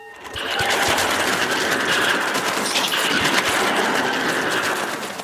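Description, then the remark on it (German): Several spider beetles in a passage make a harsh, raspy hiss that runs steadily over a fast, dense patter of their tiny clicking steps, loud and sustained for about five seconds with no voices. “kehliges, heiseres Fauchen und schnelles Trippeln.”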